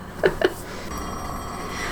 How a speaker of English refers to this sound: This the phone thing because the walls are thin. You can hear the phones ringing and.